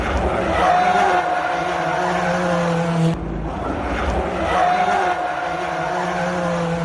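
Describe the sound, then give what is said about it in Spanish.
A rally car engine roars loudly, its revs rising and falling in a steady drone, with a brief break midway before the same roar carries on; it is the car of Pepe López, podium finisher in the World Rally Car 2 category, at the Rally Monte Carlo. “Va a pasar por aquí el coche del hombre podio en la categoría World Rally Car 2, Pepe López.”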